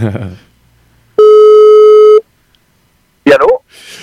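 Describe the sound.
A single loud, steady telephone ringback tone of an outgoing call to a friend in the canton of Vaud, Switzerland, lasts about a second, clean and electronic, with a brief stretch of speech before it and another short voice burst afterward.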